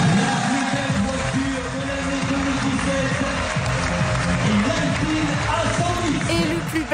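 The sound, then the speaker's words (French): A crowd, including Bruno Le Maire, claps steadily and continuously at the Alpine factory in Dieppe, a dense, even wash of applause with indistinct voices and murmuring mixed underneath. “Bruno Le Maire applaudit.”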